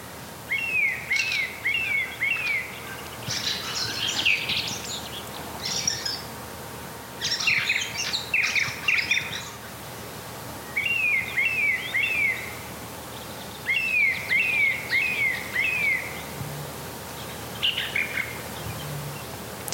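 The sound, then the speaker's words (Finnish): A song thrush sings loudly and vigorously at about twenty to four, just before four, repeating short bright whistled phrases in bursts separated by brief pauses, with no one talking. “Ja sitten se oli siinä vähän ennen neljää, 20 vaille suunnilleen, kun laulurastas aloitti laulun ponnekkaasti, ei mitään anteeksi pyydelleen vaan oikein kunnolla laulaen.”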